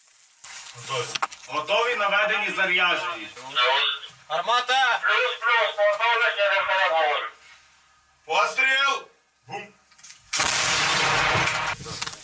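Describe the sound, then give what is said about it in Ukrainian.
After several seconds of talking, a self-propelled artillery gun (SAU) operated by a five-person crew in Ukraine's Donetsk region fires once with a loud blast that fills the last couple of seconds with a harsh, roaring burst of noise. “Після пострілу САУ ретельно маскують і бійці йдуть в укриття, адже ворог може одразу завдати удар у відповідь.”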